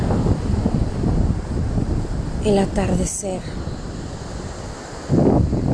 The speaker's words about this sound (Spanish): Observas todos los detalles, la arena, las rocas, pequeñas conchas, el agua, el sonido de las olas del mar,